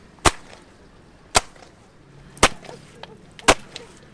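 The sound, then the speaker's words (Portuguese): Wet laundry being beaten against stone in the Papagaio river in the small town of Santo António on Príncipe Island: four sharp, loud slaps spaced about a second apart, with a faint watery background between the strikes. “aprendeu com a mãe a lavar e a bater roupa no rio Papagaio, que atravessa a pequena cidade de Santo António, na Ilha do Príncipe.”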